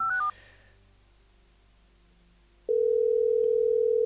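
A quick burst of stepped dialing beeps, a pause of low hum, then a steady, loud single-pitched telephone tone that drones on without a break, as a phone connection drops during a live radio broadcast.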